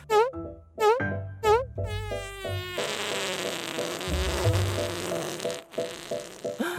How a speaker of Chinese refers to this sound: 接下来是快速往旁边移动的动作，于是屁也跟着快速往旁边移动了。